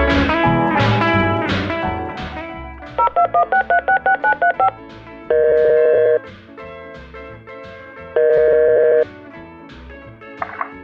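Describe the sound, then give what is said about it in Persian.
A rapid run of short touch-tone beeps from a mobile phone keypad as a number from a sheet of paper is dialed, followed by longer sustained dial tones, all loud over a background of music. “بیا به اینا زنگ بزن”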